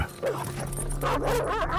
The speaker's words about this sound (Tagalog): Bigla kaming sinalakay ng mga malalaking aso